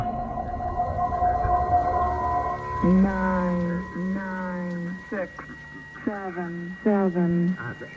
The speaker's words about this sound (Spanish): Se aprecia un breve cambio en el tono de la grabación, aproximadamente 20 zumbidos por minuto el día 16 de enero de 2003, que rápidamente fue revertido.